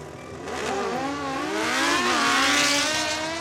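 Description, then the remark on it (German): A motorcycle engine revs loudly, its pitch climbing and wavering in steady rising surges with a rough, buzzing growl and no one talking. “nach der Wende hat tatsächlich ein philippinisches Unternehmen das äh, Motorradwerk MZ Motorräder in Zwickau gekauft und produziert dort Motorräder für den asiatischen Markt.”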